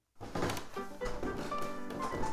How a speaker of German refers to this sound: Achtet mal ganz besonders auf das Klopfen.